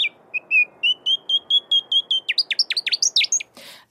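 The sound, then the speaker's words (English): A noisy scrub-bird's song rings out piercingly loud: a run of evenly spaced whistled notes that speeds up into rapid, sharply falling chirps, then stops with a short burst. “the noisy scrub bird's sound as ear splitting, uh, because if you're anywhere near it, it's just yeah, real loud”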